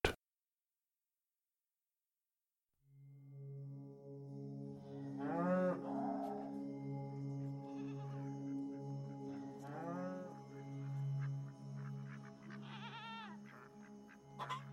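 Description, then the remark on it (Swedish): Dairy cows on a small farm in Sweden mooing in long, deep, drawn-out calls that overlap and swell in loudness, starting after a few seconds of silence and continuing steadily to the end. “Sedan så mjölkade vi korna.”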